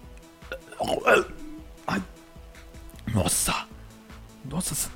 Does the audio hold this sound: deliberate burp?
yes